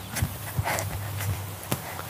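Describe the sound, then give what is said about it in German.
Footsteps of people running across ground: a handful of irregular, muffled thuds over a low background rumble, with no talking. “Komm, wir rennen auf der Seite rüber.”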